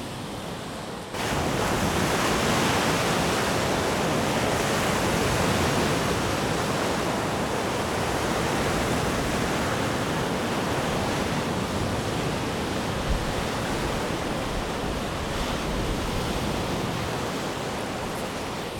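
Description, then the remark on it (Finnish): A steady, loud roar of heavy waves over a metre high breaking on the shore of Lake Päijänne, continuous with a gusty wind rush, starting abruptly after a brief quieter moment. No voices. “Nyt mä laskeudun tähän rantaan ja kova kohina pitäisi alkaa aallot on korkeita, ylimetrisiä.”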